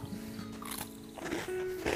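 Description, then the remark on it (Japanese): Someone crunches on a cookie-like snack during a rest outdoors in nature by a mountain stream, with a few irregular, crisp chewing bursts over a steady low hum in the background. No one speaks. “うん、今ね、ちょっとこう、クッキーみたいな最初1点取ったんで、これ食べてます。まあ、ちょっと咀嚼音がしちゃうんでね、もうここで切りますが”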